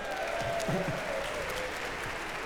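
An audience applauds steadily, a dense, even wash of many hands clapping at a constant level throughout, with a faint murmur of voices underneath.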